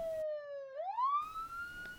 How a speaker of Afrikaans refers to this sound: Hy het laat weet toe hy by Reinhard kom en later toe hoor ons net sirenes.